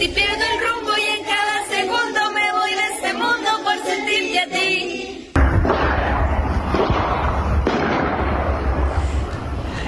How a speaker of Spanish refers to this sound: Los estudiantes se refugiaron de los tiros debajo de sus carpetas mientras la profesora llevaba la voz cantante tratando de distraerlos del ruido de los disparos.